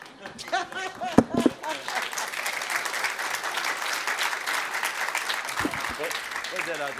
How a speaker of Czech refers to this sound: Krásný potles, přátelé.